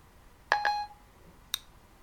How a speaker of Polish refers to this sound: Spróbujemy wybrać numer przy pomocy Siri.